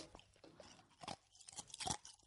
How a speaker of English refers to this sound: Maybe chewing ice isn't the best thing to do on a podcast. Maybe not.